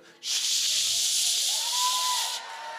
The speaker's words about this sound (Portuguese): Tem pessoas que ouvem esse barulhinho, né? Da panela de pressão, fica com medo.